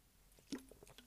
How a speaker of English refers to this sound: I had to take a sip of something here. Ice cold Pepsi. Which is the official drink of the National Football League and then served at Ford Field.